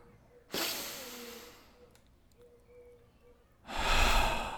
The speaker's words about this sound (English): So take a deep breath.